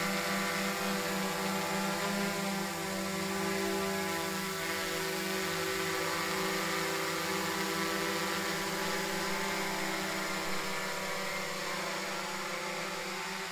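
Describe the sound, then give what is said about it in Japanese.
Drone propellers buzz steadily in flight, a dense, whining hum with layered tones that stays loud from start to finish, with no voices over it. “えっとドローンドローンの音え えー、ドローンってこんな音すんなおおすげえ”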